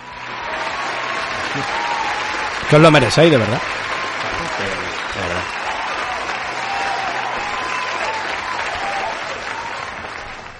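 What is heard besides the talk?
applause sound effect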